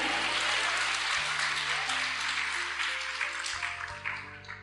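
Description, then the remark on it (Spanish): An audience applauds God, clapping steadily in a dense, sustained wave of applause over a low held musical tone that shifts pitch, the clapping fading slightly toward the end. “Yo no sé si usted lo puede creer y dale fuerte ese aplauso al que vive, al que reina por los siglos de los siglos, porque tenemos herencia.”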